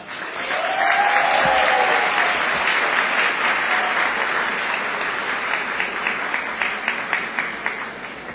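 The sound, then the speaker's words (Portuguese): An audience applauds steadily at a tribute ceremony as someone is invited up to receive an homage, a dense wash of many hands clapping that holds loud for several seconds, then thins toward the end into more distinct, separate claps. “Todos aplaudem”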